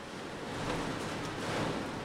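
Steady, roaring storm wind blowing without pause at an outdoor music stage, a broad rushing noise with gusty swells and buffeting against the microphone, fairly loud and continuous with no voices.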